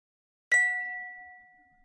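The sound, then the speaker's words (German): A single bright ding, a quiz signal showing whether an answer was right or wrong: one sharp strike that rings on in a steady, bell-like tone and slowly fades over more than a second, with no talking. “einmal kurz auf das Signal warten, ob es richtig oder falsch war.”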